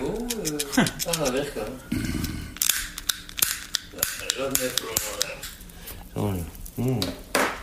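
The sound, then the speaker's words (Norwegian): A lighter is flicked over and over in the late morning as a man sitting on a sofa in an apartment tries to light a hand-rolled cigarette, sharp clicks and scrapes coming in quick irregular bursts without catching, while a voice talks intermittently over them. “Han setter seg i sofaen i leiligheten og forsøker å tenne en rullings. Jesus. Det er ingen av lighterne som funker her.”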